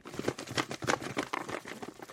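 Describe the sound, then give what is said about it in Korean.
Paper slips with the names of May participants being rummaged through in a golden box to draw a prize winner, a continuous crinkly rustling and shuffling with irregular bursts, steady and moderately loud, with no voices. “이 상자 안에 5월 동안 어떻게 벌써 8시 코너에 참여하신 분들의 명단이 들어 있습니다.”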